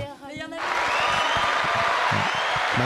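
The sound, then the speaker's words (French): A brief voiced sound gives way to a sudden burst of steady, dense applause that holds at an even, loud level, with some voices underneath. It is a pre-recorded canned applause effect played during a quiz. “la technologie nous permet d'envoyer des, euh, petits applaudissements euh, précommandés.”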